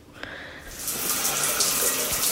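household object, shower water running

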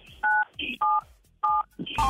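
signal or alarm, telephone keypad dialing tones

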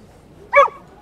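animal, dog barking

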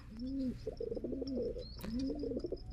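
bird, pigeon cooing

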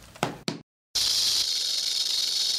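animal, snake hissing

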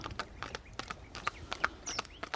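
vehicle, horse-drawn wagon hooves clip-clopping

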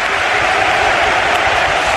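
crowd, stadium crowd ovation

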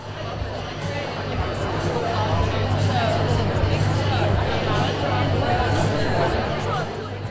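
crowd, crowd chatter

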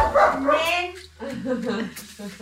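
animal, dogs barking

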